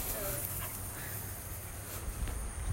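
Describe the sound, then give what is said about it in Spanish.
A small dog pants and whimpers softly in a steady, continuous stretch, with a low background hum and no one speaking. “Bueno, no tiene nombre el perrito, está bien.”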